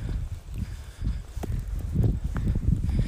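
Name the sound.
footsteps on asphalt road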